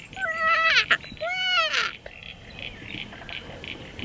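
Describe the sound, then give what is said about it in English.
A black cockatoo gives two drawn-out, wailing calls in quick succession, fairly loud and clear, followed by a faint background of repeated chirps or pulses. “And in the background, I'm not sure if you can hear it, it's one of my favourite birds is the black cockatoo.”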